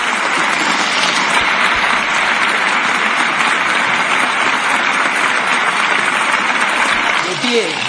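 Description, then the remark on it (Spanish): Sustained, loud standing applause from a large crowd, a dense steady roar of clapping that fills the whole stretch, with a voice briefly rising over it near the end. “Aplaudan de pie. Vamos a aplaudir de pie.”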